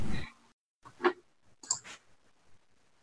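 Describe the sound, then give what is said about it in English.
Dice clatter across a tabletop in a handful of quick, uneven clicks and taps, fairly quiet, with short pauses between bounces as they settle; rolled for a wisdom save, landing a natural one. “I love it when the dice let me tell my stories.”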